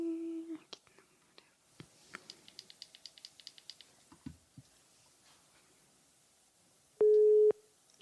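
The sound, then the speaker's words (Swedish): A telephone busy signal heard when calling a phone number: a loud, steady mid-pitched beep lasting about half a second, following a run of quick, evenly spaced clicks and faint breathy sounds. “Men jag testade ringa det här numret som vi fick igår och eh, då var det bara upptaget.”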